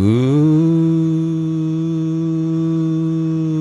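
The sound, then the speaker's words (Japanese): A voice mimics a wartime air raid warning siren heard in a village, sliding upward into one long, steady, droning wail held for several seconds, loud and unbroken, with no other talking. “うなり声が聞こえて確か空襲警報やったと思うんだけどね、空空襲でっていうふうに言われて”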